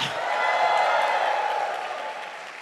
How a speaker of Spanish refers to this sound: Démosle fuerte ese aplauso al Señor. Acompáñalo de un grito de victoria.